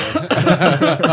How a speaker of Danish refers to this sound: ja, undskyld min host.